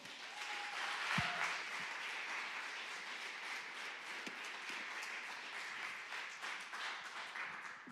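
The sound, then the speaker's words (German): A crowd applauds a speaker being introduced, steadily for about eight seconds, many hands clapping at once in a dense, even roar that neither builds nor fades much, with no talking over it. “Gebt dem Tom einen maximalen Applaus.”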